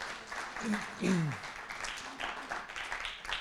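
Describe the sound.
An audience breaks into warm welcoming applause, a dense, steady patter of many hands clapping throughout, with a voice briefly calling out over it early on.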